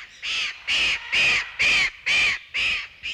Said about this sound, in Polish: Oto właśnie Cima Cima. Nazwa bardzo egzotyczna i ptak także e, nie nasz z południowej Ameryki. Krzyczy bez przerwy, młodociany okaz nie może się przedstawić przy pomocy mikrofonu.